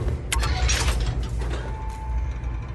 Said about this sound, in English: okay, that switch opened the door.